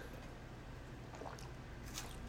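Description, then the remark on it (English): Faint sipping and swallowing of wine, with two soft wet slurps over a low steady background hum and no talking. “Gulp.”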